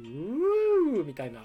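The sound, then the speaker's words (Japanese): A slide whistle, whose body length slides to change its pitch and which is used to make bird calls, plays one smooth pitch glide that rises, holds briefly and drops back down, followed right away by a few quick spoken words, all clear. “実はそのバードコール以外にもあの別の出し方っていうのがあってそれ何かというとあのスライドホイッスルっていうものを使う方法なんです。”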